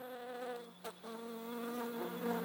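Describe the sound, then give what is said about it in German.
A steady, droning buzz of bees with layered harmonic hum, continuous, briefly dipping near the middle before resuming; no one speaks. “Was ist das? Bienen.”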